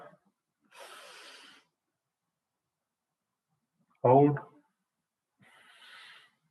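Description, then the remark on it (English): Two soft, airy breaths drawn in through one nostril while the other side is held closed with the fingers, as a breathing exercise for the lungs. Each lasts under a second, separated by a pause, with a brief voiced exhale between them. Fairly quiet. “You hold it one side of your nostril, you close it, and you breathe in. Hold your breath. Release.”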